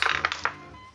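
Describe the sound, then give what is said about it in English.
Dice clatter across a table in a quick burst of four or five sharp clicks over half a second, then settle into quiet. No one speaks. “I have brought out two sets of dice, and I don't have a single d20”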